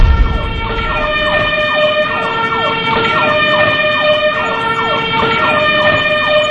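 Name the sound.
fire truck siren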